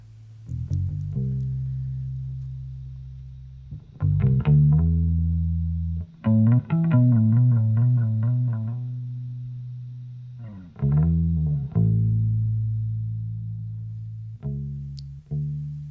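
A bass line for a song is played on a different guitar, with slow, deep, sustained notes in a gritty, effected tone and brief pauses between phrases. It is heard alone, fairly loud, with no talking.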